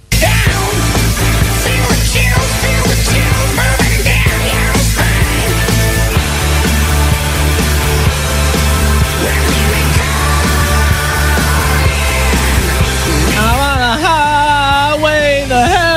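A loud hard rock song plays continuously, with a driving drumbeat, heavy bass and dense distorted guitars, and a wailing vocal line rising near the end.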